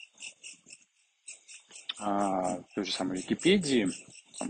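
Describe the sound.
A steady, pulsing insect chorus of cicadas hums throughout in high, repeated bursts, continuing in the background while a woman speaks over it in the second half.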